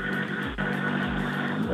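A damaged rally car driven by Javier Pardo creeps slowly past at the start of the second stage, smoking heavily, apparently with a broken radiator. Its engine holds a low, steady rumble with a faint rhythmic throb, loud and continuous for the whole moment.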